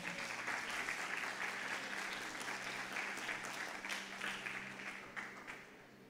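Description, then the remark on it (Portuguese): Sustained applause from an audience welcoming two people called up to the front, a dense, steady wash of many hands clapping for about six seconds, holding strong before easing slightly at the end. “Vamos recebê-lo com uma sala de palmas também, né?”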